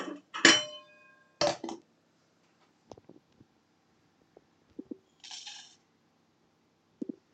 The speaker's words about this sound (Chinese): 开了小火以后，你的锅子应该会有一点点热，但准备好茶叶小碟的时候呢，把茶叶呢倒入我们的锅中，啊，大概这个时候哦。